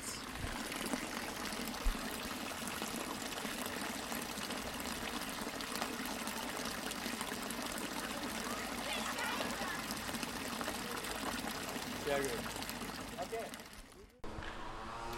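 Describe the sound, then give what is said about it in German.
A village fountain in Windischgarsten splashes and burbles steadily, a continuous wash of running water that holds even for about fourteen seconds before cutting off abruptly. “Und jetzt zur Entspannung 10 Sekunden des Plätschern des Windisch-Gastner Dorfbrunnens.”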